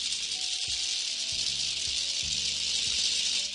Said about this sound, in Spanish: maraca se escucha más aguda y la otra se escucha más grave. Y bueno, este es como la parte en donde una maraca podemos nombrarla como la masculina y la otra la femenina. Son dos sonidos diferentes, no son iguales